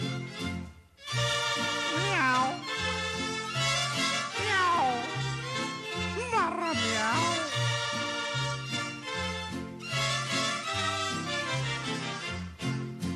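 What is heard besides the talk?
cat meowing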